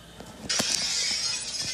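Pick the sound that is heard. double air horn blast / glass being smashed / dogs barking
glass being smashed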